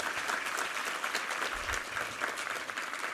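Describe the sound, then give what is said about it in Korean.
A church audience at a Sunday worship service claps steadily in thanks and glory to God, a dense wash of many hands with no pauses, at an even, moderate loudness throughout, and no voices heard over it. “할렐루야 우리 하나님께 감사와 영광의 박수 올려드리겠습니다”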